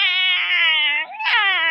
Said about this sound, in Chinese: 快看，大卫抓住了小猫的尾巴，小猫不停的在喊啊